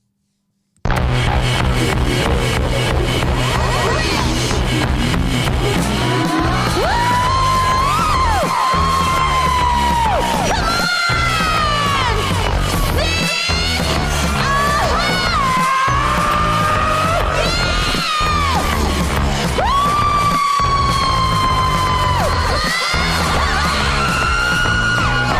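A raucous rock band tears through a cover of a hip-hop song, with loud shouted vocals, dense distorted instruments and heavy drum hits landing in a steady beat throughout.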